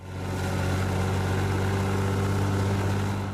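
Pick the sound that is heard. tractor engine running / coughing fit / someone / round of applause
tractor engine running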